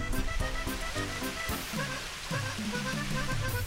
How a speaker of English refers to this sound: We're just descending down from Cabot Tower, and halfway down there is a Victorian folly that has been built. And you might be able to pick up there the sound of running water. That's a little fountain.